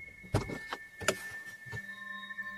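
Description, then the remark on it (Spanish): A car stops on a road and its door unlatches and opens with a few sharp clunks and thumps as the driver climbs out, while a steady high electronic chime hums underneath. “Ricardo, sin emitir sonido, para el auto y se baja de él.”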